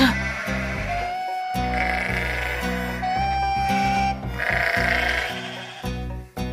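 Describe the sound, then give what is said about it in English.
Several sheep bleat and grunt as they shove to push a Jeep, their overlapping calls forming a loud, nearly continuous chorus with brief pauses between bursts. “Sheep shove. Sheep grunt.”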